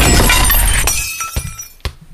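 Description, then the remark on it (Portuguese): A window pane broken by a ball shatters with a loud, bright crash, followed by scattered tinkling and a few sharp clinks as shards fall and settle, with no voices. “De novo? Mais prejuízo! Alguém vai pagar por esse vidro.”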